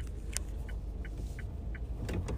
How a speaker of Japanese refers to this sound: 今カチカチって音がしてると思いますがそうです、えー、私ちょっとあの先にこういう音声配信をしている先輩の真似をちょっとしてみました運転しながら道中ちょっとおしゃべりがしながらやってみようかなと思って録音してます